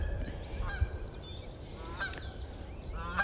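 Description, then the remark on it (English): Canada geese gliding in and honking outdoors, several harsh nasal calls spaced out over a few seconds, over a steady low rumble of wind or background noise. “If you can't tell by the honking, it's actually a Canadian geese.”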